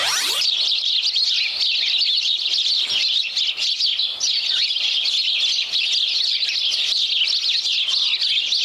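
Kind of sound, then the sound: bird, birds chirping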